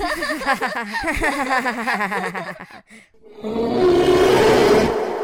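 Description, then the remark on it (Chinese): A huge, angry black bear appearing out of the grass roars: a wavering, warbling vocal run gives way, after a brief pause, to a loud, rough, sustained roar lasting about two seconds before fading. “突然一声大吼。草丛中出现一条庞大的身影，一头巨大的黑熊正愤怒地看着乌拉乌拉与兔子妮妮。”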